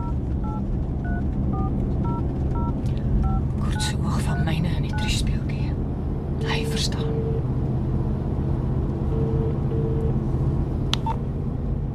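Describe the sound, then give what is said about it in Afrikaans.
A rapid string of dialing beeps from a phone keypad as someone calls their father back, followed later by a couple of longer, lower ringback tones, all over a constant low rumble like a car interior. “Laat ek vir Pa terugbel.”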